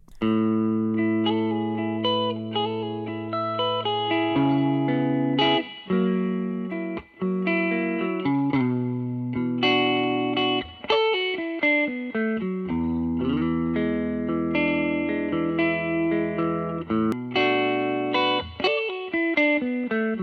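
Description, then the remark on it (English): Distorted electric guitar music, the sixth song of an album playing from a CD, plays steadily and loudly, with sustained chords and shifting notes, heavy effects and some reverb, no voices over it. “Okay, anyway, I'll go listen to it right now. Song number 6, ….”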